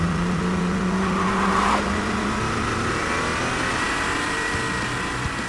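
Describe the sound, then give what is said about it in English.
A car engine revs loudly and then pulls away, its steady roar holding as the vehicle accelerates off, with no voices over it. “Why are we taking one of Daddy's cars?”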